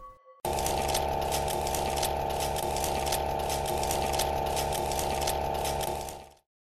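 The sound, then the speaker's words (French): A high-tech, hookah-like cannabis vaporizer with a metal cone, used in a pilot programme in Basel, Switzerland, by a 42-year-old user to heat cannabis and inhale THC vapour, runs with a loud, steady whirring hum, punctuated by soft regular clicks about once a second, then cuts off abruptly. “Ce son que vous entendez, c'est celui d'une sorte de narguilé high-tech, un cône métallique qui permet à”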